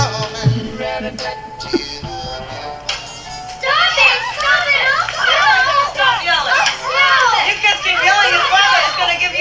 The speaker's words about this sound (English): if you kids don't stop yelling i'm going to give you something your father's going to give you something to yell about